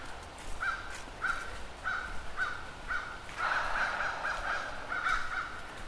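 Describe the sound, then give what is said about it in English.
Crows caw repeatedly in a steady series of harsh calls, roughly one or two per second, clear against a faint background hiss; no one speaks. “I'm just grateful for being alive, for hearing the crows caw, and the rustle of leaves beneath my feet.”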